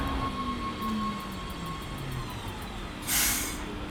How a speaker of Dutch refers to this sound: We zijn weer op station Haarlem-Sparenwoude. Op het perron. Daar komt een trein aan